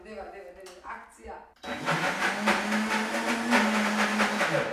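After a few spoken words, a blender switches on abruptly and runs loudly for several seconds, a steady, dense mechanical whir with a low hum as it purées hot soup.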